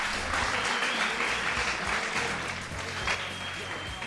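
Steady applause from an audience, a dense wash of many hands clapping at an even level without letting up.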